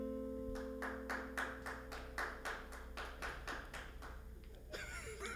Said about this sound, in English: That was that was good. At least it wasn't a sarcastic clap.